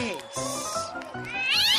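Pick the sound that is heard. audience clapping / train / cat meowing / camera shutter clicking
cat meowing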